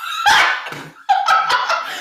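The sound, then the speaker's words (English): A dog barks in a quick series of high, yelping barks, with a brief pause between two bursts and no voices. “Y'all, my dog just crawled under a couch to get away because he hates our setup.”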